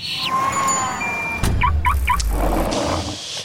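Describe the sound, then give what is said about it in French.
A short, loud segment jingle built from sound effects: a steady tone and whoosh, a sudden low thump, three quick squawking chirps, then a rumbling, car-like noise that fades out. No one speaks. “On va renchaîner vers la chronique sur le permis de conduire. C'est parti, re-jingle.”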